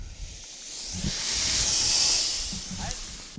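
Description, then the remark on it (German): The steam locomotive Emma hisses loudly with open cylinder cocks as it slowly starts to move at Bad Orb, a broad continuous jet of steam swelling toward the middle and easing off, with faint low rumbles and clanks beneath. “So, und ihr hört schon, es dampft und zischt, die, die Zylinderhähne sind offen und die Emma setzt sich so langsam in Bewegung.”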